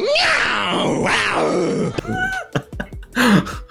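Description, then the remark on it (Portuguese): A man's voice imitates a jaguar's roar with a long, rough, groaning growl for about two seconds, followed by several short, breathy grunting bursts. “O dia que ele vê uma onça no meio da mata esturrar, que ela dá um.”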